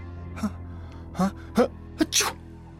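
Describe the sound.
A voice imitates a girl's sneeze: a few short, rising breathy catches build up, then end in one sharp, noisy burst, fairly loud, with quiet after.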